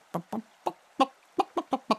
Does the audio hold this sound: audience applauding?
no